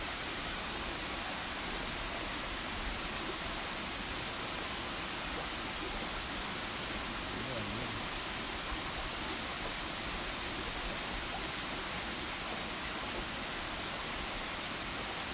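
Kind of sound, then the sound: nature, waterfall rushing water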